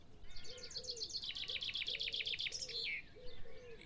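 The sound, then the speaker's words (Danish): Several birds sing at once on a sunny early-spring day under an almost cloudless sky, a bright rapid trill of repeated chirps layered over lower cooing notes, steady, with no voices. “Fuglene elsker også det dejlige vejr, og man begynder at kunne høre flere og flere fugle synge.”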